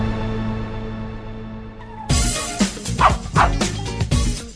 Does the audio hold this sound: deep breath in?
no